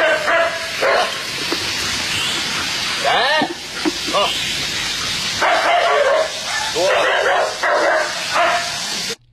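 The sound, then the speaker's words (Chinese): Several police dogs bark repeatedly in sharp, loud bursts over a constant hissing background during 5 a.m. training at the Nanjing Public Security Bureau criminal investigation police dog brigade's training ground in hot weather, with a brief spoken call from a person among the barks. “带着自己的警犬们开始了当天的训练”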